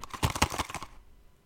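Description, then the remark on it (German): Quick, uneven clattering bursts as a box with something loose inside is shaken for under a second, the rattles fairly loud and bright, then fading into quiet. “Und ich sage, äh, schüttel mal nochmal bitte.”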